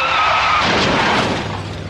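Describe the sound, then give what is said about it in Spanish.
A loud car crash: a brief tire squeal gives way to a harsh burst of crunching metal and shattering glass that fills the moment, with no voices. “Los domis de choque revelan el daño que puedes sufrir al chocar en un auto.”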